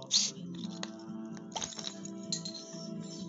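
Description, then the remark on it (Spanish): A beer being opened: a sharp crack right at the start, followed by a few smaller clicks and a brief hiss over a low, steady background hum. “Estoy destapando mi chela.”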